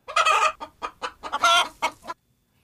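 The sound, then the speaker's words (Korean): A chicken clucks in a quick, uneven burst of about eight squawky calls, a couple drawn out longer, then it falls silent. “2박 3일 쉬지 않고 등반했을 때 민가에 가서 양을 구하고 닭도 잡았어.”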